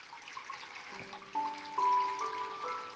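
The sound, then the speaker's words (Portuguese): A stream flows steadily with a soft, continuous rushing and babbling, while gentle sustained tones drift in over it partway through. No one speaks. “Sinta o barulho da água. Sinta o seu riacho.”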